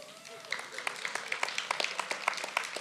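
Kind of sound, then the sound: crowd, audience round of applause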